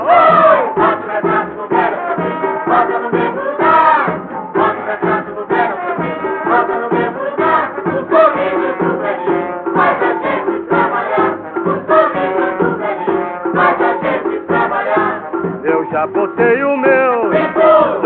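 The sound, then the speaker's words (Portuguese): A carnival march song sung in Portuguese by a crowd of voices in unison, loud and steady throughout, with a brassy, old-recording quality and a bouncy marching rhythm. “Pinto a Martinha de Carnaval bota o retrato do velho outra vez.”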